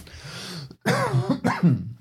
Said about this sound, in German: ich habe noch ein wenig Husten. Es wird aber besser, weil ich war ein bisschen, ein bisschen erkältet die letzten Tage, Wochen.